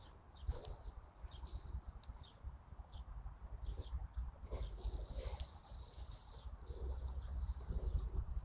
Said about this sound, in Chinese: 所以你听这个单独的声音就是麻雀的小麻雀的声音。它小啊，它要喂，让妈妈来喂喂它吃的，就是就得让妈妈能找到它。现在还是小麻雀的声音